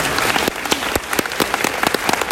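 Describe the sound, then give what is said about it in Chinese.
An audience at an Aiduomei talk applauds for themselves in agreement, with a dense, steady wash of many hands clapping, sharp individual claps popping out irregularly above the continuous patter. No one speaks over it. “所以一句话，爱多美看得懂，排队等领钱，认同的给自己一个热烈掌声哦。”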